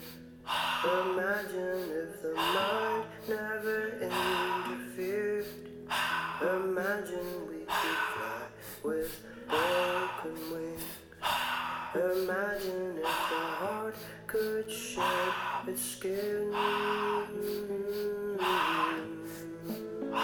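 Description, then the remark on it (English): Heavy, forceful breaths during a breathwork exercise repeat in a steady rhythm about once a second, loud, layered over a continuous musical backing with sustained tones. “Whatever you feel, just keep breathing, keep breathing, keep breathing.”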